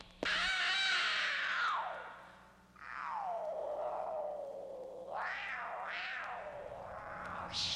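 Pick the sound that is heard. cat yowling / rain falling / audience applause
cat yowling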